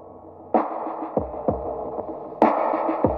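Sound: pop song intro playing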